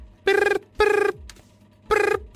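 A mobile phone rings inside a tracksuit trouser pocket with a bright, buzzy electronic tone in three evenly spaced bursts, slightly muffled, with no talking.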